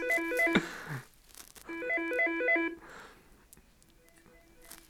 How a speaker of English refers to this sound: That was my phone ringing in my office. Sorry about that. If you heard that.